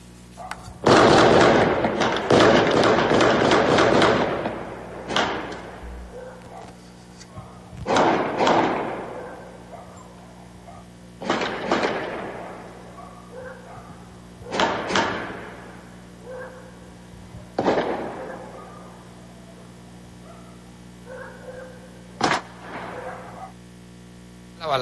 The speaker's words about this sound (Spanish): Vamos a escuchar un pedacito de la balacera allí en el fraccionamiento Santa Sofía en la ciudad de Irapuato.